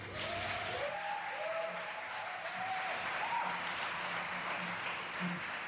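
Sustained applause from an audience welcoming an author who is about to read a letter aloud. A dense, steady wash of many hands clapping at even loudness for several seconds, with faint whistles or cheers threaded through.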